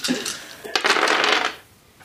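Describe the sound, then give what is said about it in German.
Dice are rolled during a game night, rattling and tumbling across a hard tabletop in a short burst of bright clicking clatter that settles after about a second, with no one speaking. “Du darfst jetzt gerne würfeln.”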